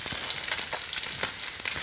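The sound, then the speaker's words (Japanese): Mackerel sizzling steadily in a pan over medium heat, a dense, bright crackle of frying with scattered pops and spits throughout, fairly loud and continuous, with no voices. “えと中火で、えっと3分ぐらいですかね、はい、待ってサバの周囲がだんだん白くねこう、はい、火が通ってきてる感じになうん、なりつつありますけど”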